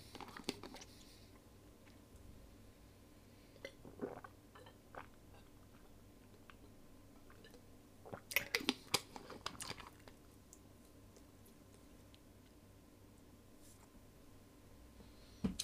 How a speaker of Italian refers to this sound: Anzi, mi voglio bere un po' d'acqua. Mi voglio bere un po' d'acqua. Aspettate.